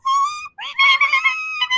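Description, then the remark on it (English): A voice imitates a baby guinea pig with shrill, high-pitched squeaks: one steady whistle-like note, a short break, then a run of wavering, chirpy squeals, all fairly loud with no other sound. “well, now with baby guinea pigs, it's that sound, but high pitched.”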